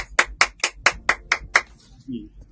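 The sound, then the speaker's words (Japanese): Hand clapping held away from the microphone: about seven sharp, even claps in a quick steady rhythm, followed by a brief low murmur of a voice. “すいません、ちょっと手元でやるとうるさいんで、離れて拍手をさせていただきます。”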